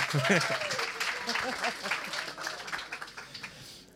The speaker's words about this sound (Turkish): Evet bir alkış geldi.